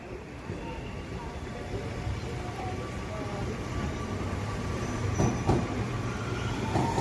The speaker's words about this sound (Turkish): Sabah dörtte ise ana terminalden kalkacak hidrojenli trene yetiştiler.